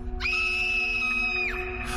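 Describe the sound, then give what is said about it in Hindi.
A woman's shrill, high-pitched scream at the sight of a woman's burned face and eyes without pupils rises sharply, holds one long steady note for over a second, then drops off, heard loud over a low humming drone. “उस औरत का जला हुआ चेहरा और बिना पुतलियों वाली आंखें देखकर दिव्या की चीख निकल गई”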